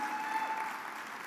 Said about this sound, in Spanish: Vamos a ese aplauso fuerte a Jesús.